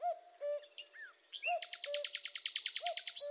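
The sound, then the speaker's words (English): Birdsong with several birds calling at once: soft, low whistled notes repeating steadily, then a loud, rapid, high-pitched trill of bright chirps layered over them. No voices. “But I also think that you know maybe like the night before it'd be really good to get some um, some music in that like kind of really captures birds.”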